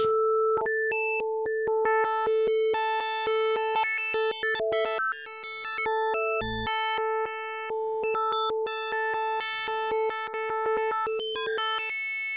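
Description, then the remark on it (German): A synthesizer holds one steady note while rapidly switching through its 64 built-in waveform presets, patterns that imitate instrument sounds such as an electric piano or bells. Its timbre shifts from pure and hollow to bright and buzzy, with sharp clicks at each change and one low thud midway. “Und diese Muster bestehen quasi aus ganz spezifischen Wellenformen, die gewisse Klänge nachahmen.”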